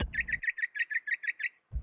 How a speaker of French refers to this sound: Les trois chercheurs ont donc conclu que les oiseaux moqueurs, tout comme les musiciens, utilisaient des techniques de répétition de sons selon des règles précises.